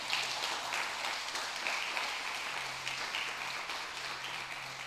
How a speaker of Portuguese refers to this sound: Se você crê, dá uma salva de palmas a ele.